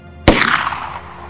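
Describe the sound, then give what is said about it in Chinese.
A single loud rifle shot cracks out sharply at night, fired from a balcony at a man running across a moonlit courtyard, followed by a broad, noisy decay that fades over about a second, with no voices present. “枪声响彻寂静的深夜。”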